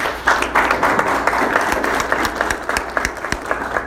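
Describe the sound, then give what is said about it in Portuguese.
An audience applauds steadily, dense overlapping claps with a few sharper individual hand claps standing out, sustained and fairly loud throughout. “Muito obrigada. Um de palmas.”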